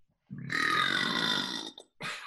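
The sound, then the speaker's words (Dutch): A long, loud, croaky burp rumbles out for well over a second, followed by a brief gap and a short second burst. “dat jij gewoon met een boer negeert.”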